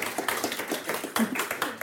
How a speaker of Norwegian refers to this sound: Ja, vi, må, vi, må, ta med den applausen vi får.